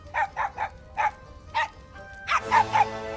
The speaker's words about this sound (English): Oh, so the CG dog decided to to butt in there at the end of the scene.